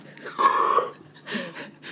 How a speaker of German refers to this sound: Nicht mich beim Gähnen stören. Ich warte nur, dass wir endlich anfangen.